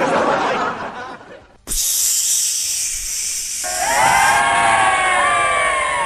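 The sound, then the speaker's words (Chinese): A crowd laughs and clamours, then a loud, steady hiss like a red-hot flat iron sizzling takes over, and the crowd rises again into cheering with shrill, wavering whistles. “这有什么好欢呼的吗？”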